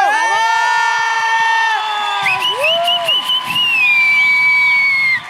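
A crowd cheers loudly for several seconds to welcome the day's guest, with long, sustained high-pitched whoops and shouts rising and sliding over a dense wash of voices. Scattered clapping may sit underneath.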